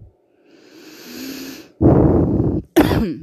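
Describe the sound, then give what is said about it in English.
A person allergic to pollen coughs: a long, raspy intake of breath followed by two loud, harsh bursts in quick succession, with no talking. “Excuse my coughing, which no doubt will be continual because I live in a succulent pollen area.”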